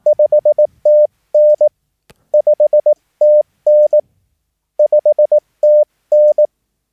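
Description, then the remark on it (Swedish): A Morse code (CW) signal report, 509, sent on a steady, mid-pitched tone, clear and loud, with quick dits and longer dahs repeating the same short sequence three times, no voices. “så eh, är det ändå så man ska sända den då. Då kan den låta så här då.”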